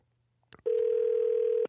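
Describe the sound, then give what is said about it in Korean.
A telephone ringback tone from an outgoing call to a listener, a dental technician in Gongdeok-dong, who must answer to receive a gift: one long, steady, loud tone lasting about a second, preceded by a couple of brief clicks. No one speaks. “자, 공국 전화를 받으셔야 선물이 나갑니다.”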